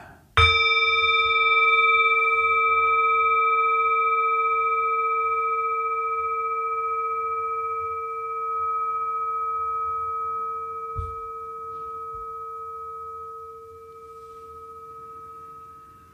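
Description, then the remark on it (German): A singing bowl is struck once to begin a meditation and rings with a pure, sustained tone and shimmering overtones, slowly fading over many seconds. No one speaks. “Ach ja, da gibt es noch etwas zum Anfang und zum Ende beginnt die Meditation mit dem Klang der Klangschale.”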